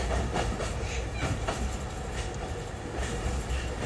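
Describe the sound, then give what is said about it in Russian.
A tram rumbles steadily along its rails, heard from inside the car, with a dense low rattle and faint rhythmic clacks of the wheels over track joints, no voices. “Это сообщение для тебя я записала в трамвае”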